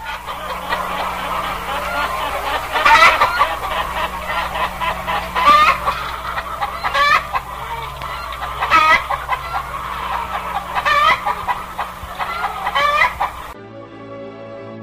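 A flock of chickens, hens and a rooster, cluck and squawk continuously, with repeated sharp bursts of louder hen calls rising over a steady barnyard murmur before the sound cuts off abruptly.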